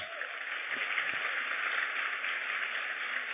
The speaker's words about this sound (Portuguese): Obrigado, gente. Vamos aplaudir o Senhor aí pela vida deles.